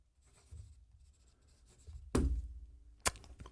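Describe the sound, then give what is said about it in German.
A pen scratches across paper in a quick series of quiet strokes like a signature, followed by a dull thump and a sharp click as something is set down. “Ich bin jetzt nicht Odell Beckham Jr., aber ich habe einen Stift hier.”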